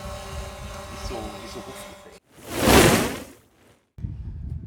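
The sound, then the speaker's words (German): A quadcopter drone hovers up high in the wind, with a steady, low motor hum and faint tonal whine, followed by a brief rushing whoosh that swells and fades, then quiet. “Aber ich finde, sie ist wirklich auch leise, ne? Also deutlich, Fall, deutlich leise. Sehr, sehr, tief, sehr tiefes Geräusch.”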